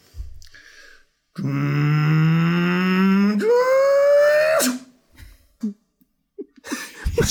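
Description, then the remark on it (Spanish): A voice imitates a time machine with a loud, buzzing hum that climbs steadily in pitch, leaps higher midway, and cuts off after about three seconds, followed by a few soft breaths and clicks. “Fue una mezcla de un auto poniendo primera, y saliendo en un semáforo, se puso en verde, salió y de repente hay un ruido espacial.”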